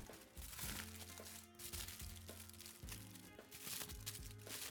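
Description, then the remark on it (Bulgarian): Aluminium foil crinkles and crackles almost continuously as it is pressed and folded around a cake pan, fairly loud, with soft background music playing underneath. “Нея пък овивам с алуминиево фолио.”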